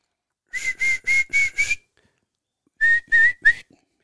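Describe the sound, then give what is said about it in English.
A person gives a clear whistle in short rising notes, five quick ones in a row, then a pause and three more, something between calling a dog and a quail's call. No talking. “It sounded kind of like a hybrid, kind of like a like a whistling for your dog, whistling and a quail mixed together.”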